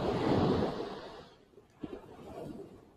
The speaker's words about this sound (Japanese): 聞こえると思うんですが、波打ち際にまね、砂、海岸に座っているので、ザバーザバーと音が聞こえてると思います。まあちょっと喋ることがなかったら無音になると思うんですが、波の音をお楽しみください。